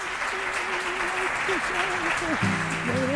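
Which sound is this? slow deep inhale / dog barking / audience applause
audience applause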